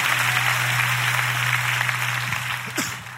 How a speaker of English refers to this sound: And if you are believing God for a word, let's clap our hands one more time and let's let the Lord know we're ready.